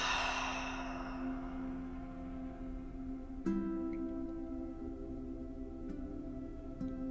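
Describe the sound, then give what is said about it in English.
A deep, breathy exhale through the mouth, soft, fading out over the first second like a long sigh, with a steady low drone humming underneath throughout. “Taking a nice deep inhale and release through the mouth.”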